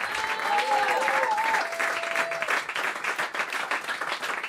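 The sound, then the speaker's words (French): Steady applause from a concert audience for a band fills the whole stretch, a dense wash of many hands clapping, with a few sustained tones ringing out briefly near the start. “On fait du bruit pour eux, merci.”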